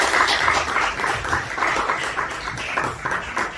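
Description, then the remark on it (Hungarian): An audience applauds steadily, a dense, crackling wash of many hands clapping at a fairly even loudness throughout, with no voices on top. “Még egyszer akkor egy tapsal köszönjük meg magát a szolgálatot.”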